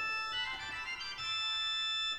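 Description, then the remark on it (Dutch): A pipe organ's mixture stop sounds alone, a bright, shrill cluster of high pitches that enters after a brief pause and holds steadily for about two seconds, fairly loud. “Mik stuur los beluisterd klinkt zo.”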